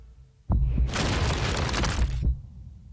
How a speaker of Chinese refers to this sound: 这发动机的声音听起来像心跳。